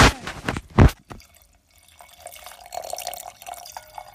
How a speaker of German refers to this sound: Jetzt Oder wird der Wein eingefüllt. ja, Alter, du musst mal schneller. ASMR.